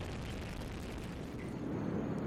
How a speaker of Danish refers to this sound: Liftoff of the mighty Delta IV Heavy rocket with NASA's Parker Solar Probe a daring mission to shed light on the mysteries of our closest star, the sun.